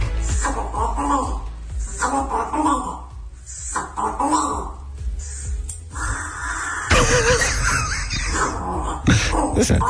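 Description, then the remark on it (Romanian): A crow, trained by its owner to talk, caws and croaks in speech-like, voice-imitating bursts, fairly loud, while a dog barks and yips; the calls overlap in a busy, continuous exchange. “Cronco e o cioară care e celebră pe internet”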